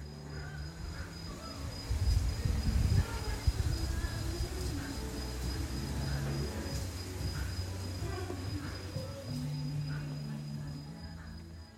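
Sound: crickets chirping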